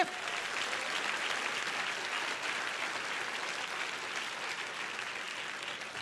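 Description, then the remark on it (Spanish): An audience applauds steadily as applause offered to the Father, a dense wash of many hands clapping at once that holds at an even, moderately loud level throughout without a break. “Si ese es el aplauso a tu padre.”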